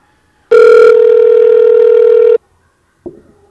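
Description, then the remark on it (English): A single loud, steady electronic ringing tone from an outgoing phone call sounds for about two seconds, stops unanswered, and a brief soft click follows. No one speaks. “You gotta answer the phone, man.”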